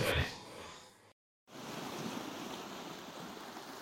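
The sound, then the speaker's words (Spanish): Steady rush of real ocean surf washing onto a beach, recorded about two metres from the shore, a broad hissing roar with no voices. It cuts to silence for a moment early on, then resumes just as strongly. “ni tengo olas del mar sacadas de YouTube o de algún banco de imágenes. No, estoy a escasos dos metros de la mismísima playa”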